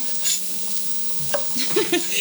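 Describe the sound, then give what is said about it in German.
A soft, steady sizzle of herbs frying in a hot pan, with a few light clinks and scraping sounds of stirring over the hiss; no one speaks. “gebe ich auch in die Pfanne rein.”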